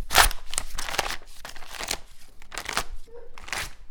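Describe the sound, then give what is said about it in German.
Paper is torn and crumpled by kittens in a steady series of crackling, rustling bursts with brief pauses between them, fairly loud and with no one talking. “Zum Beispiel Papier zerrissen haben sie einmal.”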